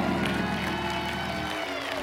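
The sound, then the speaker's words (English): An audience claps together in a steady, dense wash of hands, holding an even loudness throughout, with some crowd noise mixed in. “Well, I don't know if you can shout, but you can sure enough clap right, right there where you are.”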